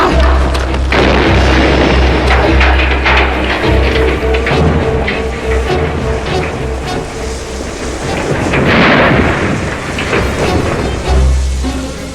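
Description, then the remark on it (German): Thurgood's dynamite, stored in his shed, explodes: a loud, deep boom that rolls into a long, roaring rumble with crackling debris, swelling again midway before settling. No one speaks. “Wir, wir wollten doch bloß ein harmloses Feuerchen machen hätte mir denken können, dass Thurgood sein Dynamit im Schuppen aufbewacht.”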